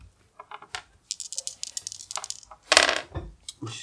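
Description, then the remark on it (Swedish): Dice clatter and rattle across a hard surface in a quick burst of sharp clicks as they are rolled for a charm check, with a louder tumble near the end; no one speaks. “Då kan du slå mot charm och ta bort en tärning.”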